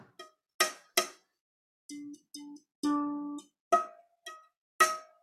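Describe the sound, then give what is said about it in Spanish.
About ten short plucked string notes sound one after another with no talking, each with a bright twangy attack and a quick fade, some ringing a little longer with a clear pitch; an instrument string is plucked while divided at its midpoint, illustrating Pythagoras' monochord principle. “Entonces, nos sirve para ilustrar el principio del monocordio porque lo que hizo Pitágoras era tan sencillo como tomar una cuerda de un instrumento de estos y mirar qué pasaba con el sonido si pulsaba la cuerda dividiéndola por la mitad.”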